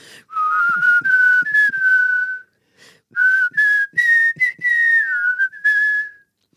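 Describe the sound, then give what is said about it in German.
Two people whistle a simple melody in unison, clear, in two phrases separated by a short pause, with a few soft thumps underneath and no talking. “Wie wir gerade super einstimmig eine Miniband waren.”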